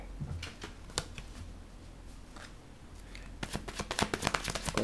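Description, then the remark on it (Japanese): Tarot cards being shuffled: scattered crisp snaps and slides at first, then a quicker, louder flurry of riffling clicks near the end, with no voices. “この音が好きなんだけど、混ぜる音。”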